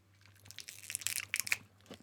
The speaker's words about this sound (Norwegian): Nå tygger jeg. Nå tygger jeg.